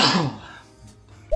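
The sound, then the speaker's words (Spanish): One loud sneeze bursts out at the start and trails off quickly, followed by near quiet with a faint low thump just before the end. “Salud.”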